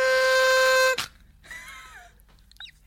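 A party horn blares one loud, steady, buzzy toot lasting about a second, followed by a softer, wavering note that trails off into near quiet.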